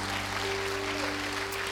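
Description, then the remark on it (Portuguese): An audience at a church service claps together for the Lord Jesus in a dense, continuous wash of applause, steady in loudness throughout, while low sustained tones hum underneath. “Você podia dar um aplauso bem forte ao Senhor Jesus nessa hora.”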